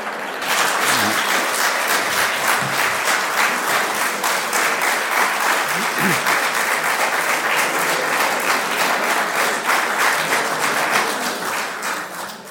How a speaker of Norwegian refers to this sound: Ja, du fikk en velfortjent applaus.